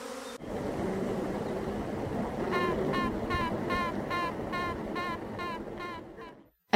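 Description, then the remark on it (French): A steady beehive buzz hums throughout, then from about two and a half seconds a series of short, high, rhythmic toots of queen bees piping inside the hive rise above it, repeating evenly until the end. “c'est le chant des reines, des reines des abeilles”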